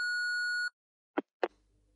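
A steady electronic telephone tone sounds for under a second and cuts off as a call from a public phone booth is disconnected, followed by two sharp clicks and a faint low hum on the line.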